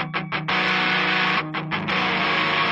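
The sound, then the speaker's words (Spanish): A mildly overdriven electric guitar plays through an amp, opening with a few choppy strummed chords before settling into a sustained, gritty ringing chord, with another short burst of stabs near the end. “Chequen cómo suena eh, una de las guitarras.”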